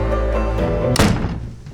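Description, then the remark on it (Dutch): A door thuds shut with one solid, heavy impact as people go inside, preceded by a low rumbling room tone and followed by a short fading resonance. “We gaan naar binnen.”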